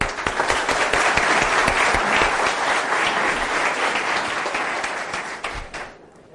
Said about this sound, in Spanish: A las 9 de la mañana, démonos un aplauso.